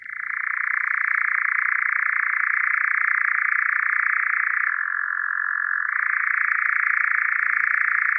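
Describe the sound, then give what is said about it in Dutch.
A continuous, mechanical churring trill of a European nightjar runs unbroken for several seconds, loud and steady, dipping briefly in pitch midway before resuming. No voices are present. “Wel, dan hoorde je een mysterieuze nachtzwaluw.”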